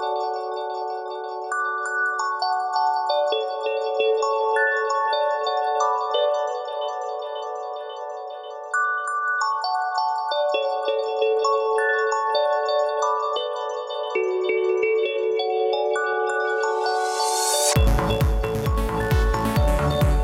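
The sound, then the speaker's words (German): A deathstep electronic track: a bright synth melody plays steady harmonic notes in a shifting pattern, then near the end erupts into a dense, loud burst of full-range electronic noise and bass. “Im Hintergrund, das möchte ich sagen, hört ihr die sachten Klänge von Deathstep mit …”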